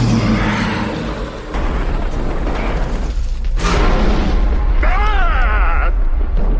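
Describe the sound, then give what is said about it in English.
A heavy stone tomb lid, the top of the Well of Souls, grinds open with a loud, continuous rumbling scrape, a sharp burst of noise midway, then a brief wavering squeal-like cry over the din. “that's the, the door opening or the, the, the, the, top of the tomb.”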